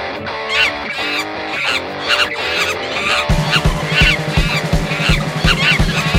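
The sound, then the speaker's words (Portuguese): A short, loud intro jingle with bright, buzzy melodic tones; a heavy pulsing bass beat kicks in about halfway through and drives it to the end. No one speaks. “Então chama a vinheta,”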